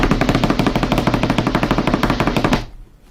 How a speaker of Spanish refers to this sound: Quiero hacer una pausa y quiero redoblantes.